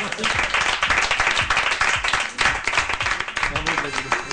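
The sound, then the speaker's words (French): An audience breaks into steady applause for the Forum Atlantique, dense overlapping claps filling the whole stretch at an even, lively level, with a few faint voices mixed in. “On peut applaudir le Forum”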